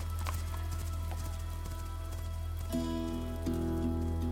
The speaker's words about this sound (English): Then he leaps back on his horse, digs his heels into its side, and flees.